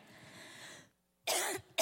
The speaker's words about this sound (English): Here I am coughing. I'm going to drink my water.